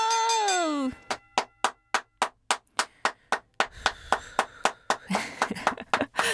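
Steady rhythmic clapping from a small group of staff, about a dozen sharp claps in an even beat, with a brief voice at the start and some cheerful chatter and noise near the end.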